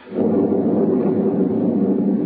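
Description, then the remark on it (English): A heavy crash of thunder breaks in suddenly and rolls on as a loud, deep, steady rumble, sustained, with no voices over it. “The lightning crashed about the top of her, and it was still that woman, towering higher and higher into the air.”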